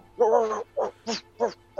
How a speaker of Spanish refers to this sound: Se encuentran ante esta situación y tienen un portón enfrente de ustedes y unos perros que cuando a medida que se van acercando empiezan a ladrar.